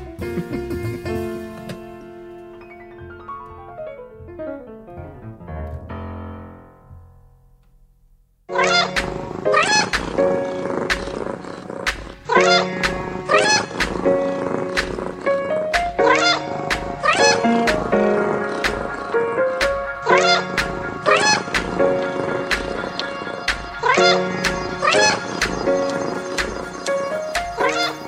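Cat meows run through a musical track. A descending run of tones opens it, then a loud, steady beat kicks in with repeated meow sounds woven through. No one speaks.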